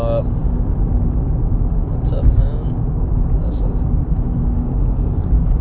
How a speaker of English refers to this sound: sorry, I'm, I'm driving and it's, uh, there's a lot of traffic.